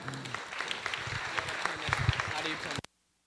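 Audience applause welcoming the first speaker of the morning: a dense wash of many hands clapping steadily for nearly three seconds at moderate loudness, then cutting off abruptly into near silence.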